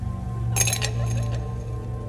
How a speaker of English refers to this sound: He tossed cracked ice from a silver decanter into this exquisite hand blown glass. The sound it made was laughter.